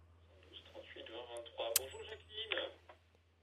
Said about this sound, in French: Il faut couper votre radio derrière, hein, si possible.